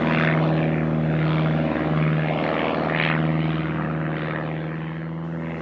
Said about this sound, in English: One day, when Gail was working in the fields, he heard a noise in the sky. He looked up and saw planes flying over his head.